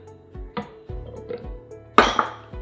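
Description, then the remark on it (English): Washed, diced pieces of cucumber, apple and celery drop into a blender jar, a series of soft irregular thuds and knocks, then a louder clattering clink near the end. No one speaks. “So I've already washed and diced up all of my cucumber, apples, and celery. So we'll just add it to our blender.”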